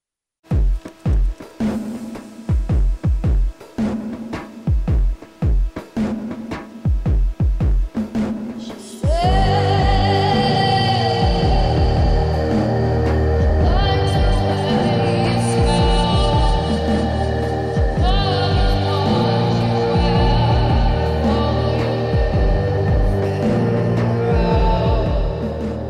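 A song plays loudly with no talking: about nine seconds of sparse, punchy drum hits, then a dense wash of sustained synths and layered instruments swells in and carries on steadily.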